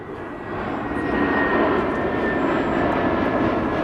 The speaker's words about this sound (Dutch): Fiets gepakt en nu zitten we hier naast Lincoln Memorial vliegtuigen te kijken. Daar komt er weer eens zo, hè? Dat is een eh, A321, de grootste die we tot nu toe eh, hebben gezien, hè? Van Delta.